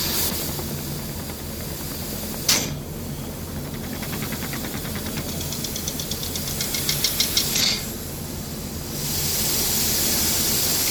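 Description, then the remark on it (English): An airless paint sprayer pump with a 525 tip runs with a steady mechanical hum and a sharp burst of hiss, then a quickening series of rhythmic pump clicks before a broad, sustained spraying hiss as it sprays onto a sheet of cardboard to check its 10-inch fan pattern. No one speaks. “Yeah, so first we're gonna just take a sheet of cardboard and spray it and make sure and check out and evaluate our fan pattern as we start to spray this product.”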